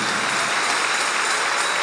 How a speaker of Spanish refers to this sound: Dale el aplauso al Señor. Ese aplauso me le está faltando. Ponle más.